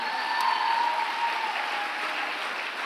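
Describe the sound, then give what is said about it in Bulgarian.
A large group claps together in a dense, steady wash of applause that holds at a fairly loud level for a few seconds, with no voices standing out. “А ако ръкопляскаш, ръкопляскай, като че наистина вярваш.”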